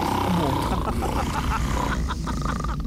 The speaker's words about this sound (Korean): 어머, 진짜 코 고는 소리예요? 전쟁 난거같지않아 어떻게 예? 이렇게 바이브 비브라토라고 예. 코비 코브라토 음. 진짜 장난 아니다.